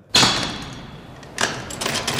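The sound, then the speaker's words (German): A heavy iron door, the middle one of three, clanks open with a sharp, ringing impact, followed by a lingering metallic rumble and a second scraping clatter. It is fairly loud, with no voices. “Vor mir sehe ich jetzt drei Türen aus Eisen. Welche soll ich denn aufmachen”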